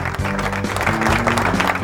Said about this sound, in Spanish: Aplausos para, para esta mujer, por favor. Hay aplausos para esta mujer.